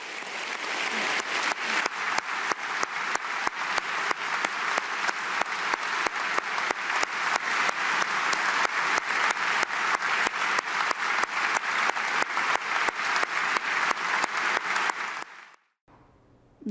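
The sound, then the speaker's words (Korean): Sustained, loud standing ovation from a large crowd after a speech by Malala, dense rapid clapping holding steady for about fifteen seconds before cutting off abruptly. No one speaks over it. “네, 자기가 동의하는 말이 나오거나 좋은 말이 나올 때마다 기립박수를 치는 문화도 볼 수 있고요.”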